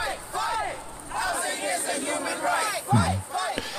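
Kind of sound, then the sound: crowd, protesters chanting a slogan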